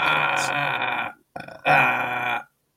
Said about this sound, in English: You burp.